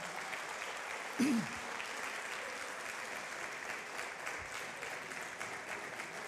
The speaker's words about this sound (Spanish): Dale un fuerte aplauso, gracias.